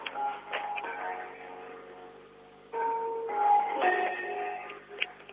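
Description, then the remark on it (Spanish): A bell clock that was bought and repaired by a family member chimes, a handful of struck tones ringing out and overlapping with long sustained hums, heard at moderate volume through a slightly muffled, narrow-sounding recording with no talking. “Un reloj de campana que compró y arregló mi papá.”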